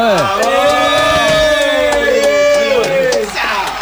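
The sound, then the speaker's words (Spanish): A crowd at a packed show at KLA 917 cheers and shouts steadily as a surprise band is introduced. Many overlapping voices rise and fall in pitch, with scattered claps mixed in; the noise stays loud throughout before easing slightly at the end. “Aplaudan, loco, vamos.”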